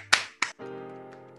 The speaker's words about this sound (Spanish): yo quiero pedir un aplauso a la, sincera y bonita respuesta que ha dado Trino